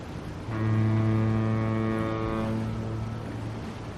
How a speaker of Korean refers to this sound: 일본 사람들을 태워갈 배가 먼저 왔다.